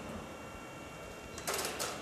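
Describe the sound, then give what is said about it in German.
An electromechanical telephone exchange selector clatters in two short mechanical bursts as the phone is hung up, rising sharply out of a steady low background hum and ending quickly. “Ja, wenn du auflegst, macht er aber auch mehr Lärm, ne?”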